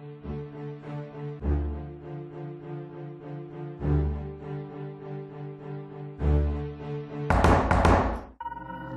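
Dull knocks on a door in a dark passageway at night, a few heavy thuds spaced a couple of seconds apart over a sustained musical drone, followed by a louder, brighter rattling burst near the end.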